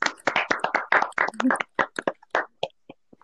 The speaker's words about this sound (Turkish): Öncelikle herkes bunun için bir kendine alkışlasın.